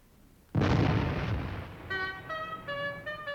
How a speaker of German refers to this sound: Lasst den Kanonendonner ihn erwecken.